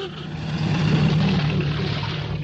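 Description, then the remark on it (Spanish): A military car's engine rumbles by on a puddled dirt street in an Arab town, with a low, steady drone that swells to its loudest around the middle and then eases slightly, accompanied by broad road noise and no talking. “Lorenz salta para eludir un coche militar.”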